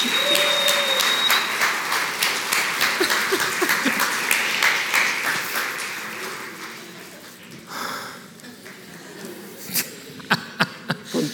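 An audience breaks into sustained applause, a dense crackle of many hands that gradually thins out, ending with a few scattered, louder individual claps.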